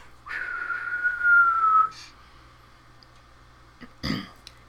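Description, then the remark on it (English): A loud, sustained whistle of something falling through the air slowly drops in pitch for about a second and a half. A brief hiss follows, then a short, dull thump a couple of seconds later as it hits the earth. “There's a whistling, like something coming through the air”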